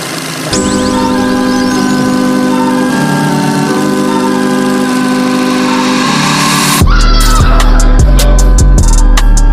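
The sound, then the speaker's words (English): A loud theme tune opens with sustained, whistle-like synth chords that shift every few seconds, then heavy bass and punchy drums kick in with a driving beat. No one speaks. “You know what does well, appease the gods though? Hmm. Our theme song.”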